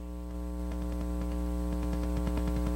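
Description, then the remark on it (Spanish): A steady electrical hum of background interference on a conversation, with stacked harmonic tones droning continuously, joined by faint rhythmic buzzy pulses and crackles as it grows slightly louder; no one speaks. “¿Usted no, no, no oye como una interferencia de fondo?”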